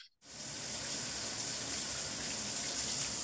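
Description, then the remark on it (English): A voice imitates running shower water with a steady, loud, hissing rush that starts abruptly and holds evenly for about three seconds, with no talking over it. “shower sound effect”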